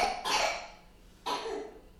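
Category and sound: human body sound, coughing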